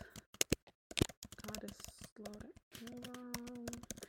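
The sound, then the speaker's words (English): Rapid, forceful typing on a laptop keyboard while looking up a verse, a dense run of sharp clicks, with someone talking over the second half. “Um, I looked up this verse on my laptop and I was also recording on my laptop and I did not know you could hear me aggressively typing.”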